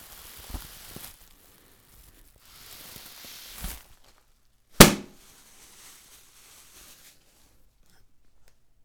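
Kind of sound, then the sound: sound effect, explosion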